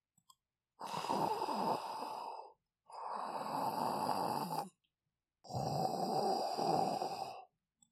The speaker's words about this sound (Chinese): 流浪汉在草丛里睡得正香甜，还发出好大的鼾声。